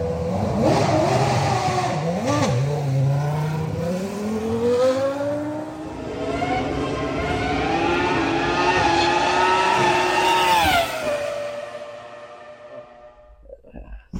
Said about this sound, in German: dann fährt der halt so raus und dann kommt das erste Mal die Station runtergeknallt und hörst diesen V10 schreien, Alter.